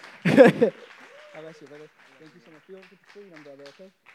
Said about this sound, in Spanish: vamos a recibirlo con un aplauso fuerte. Que se sienta en casa, hermanos.